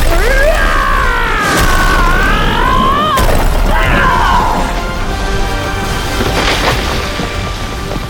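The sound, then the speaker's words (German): A loud, wavering roar, then Thor strikes the wall of the hall with his hammer in a single heavy, booming blow, followed by a long rumbling crash with clattering debris as the wall collapses. “Mit einem mächtigen Brüllen schlug er mit donnerndem Schlag auf die Wand der Halle.”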